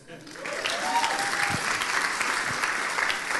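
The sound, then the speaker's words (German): Steady applause from an audience as a volunteer comes forward to assist with experiments, many hands clapping in a dense, continuous patter that rises quickly and holds at a moderate level throughout, with a faint murmur beneath it. “Ein Applaus.”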